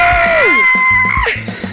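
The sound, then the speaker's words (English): A loud, excited scream of celebration from one voice, a sustained high-pitched whoop that wavers and then drops off, lasting under two seconds with no talking. “Like, I'm not going to scream this time.”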